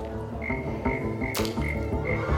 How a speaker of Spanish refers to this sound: Ven aquí, amiguita. Saluden a mi amiguita. ¡Rana!